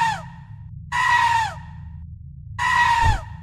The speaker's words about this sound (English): I aimed and fired. I got it. I got it this time. Is now lying on the floor, tied up in the net, screaming.